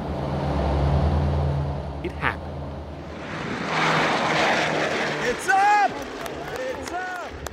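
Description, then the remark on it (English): A vintage propeller plane, leaving the ground for the first time in 60 years, drones with a deep, steady hum, then swells into a louder roaring rush as it powers up for takeoff, with excited voices calling out over it near the end. “It had been 60 years since that plane left the ground.”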